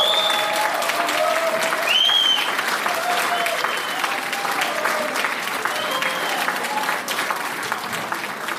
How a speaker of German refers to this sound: Und zwar ins Mettauer Tal in der Schweiz, eine kleine Gemeinde von 2000 Einwohnern. Und die ist bekannt für folgendes Geräusch. Applaus, Applaus, Applaus!